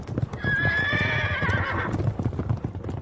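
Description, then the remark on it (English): A horse sound effect is played: a horse whinnies loudly with a long, wavering neigh over a steady clip-clop of hooves, the trotting continuing after the call fades. “Ah, up on my high horse.”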